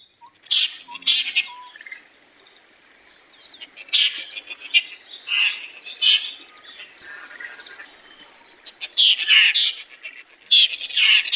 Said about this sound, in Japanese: 仏法僧の鳴き声です